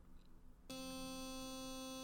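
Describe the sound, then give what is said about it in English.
After a brief quiet moment, a vibrator switches on abruptly and buzzes loudly and steadily, a continuous electric hum with no pauses and no voices. “That sound is my real vibrator and he never makes me go Dutch.”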